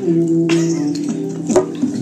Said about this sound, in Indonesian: ini suara air ya